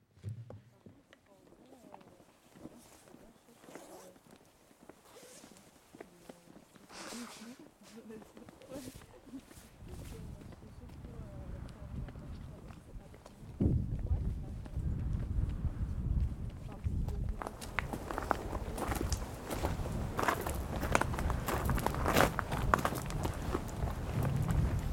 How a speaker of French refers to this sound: On reprend tout de suite euh, sur la route avec euh, des petits bruits de gravier.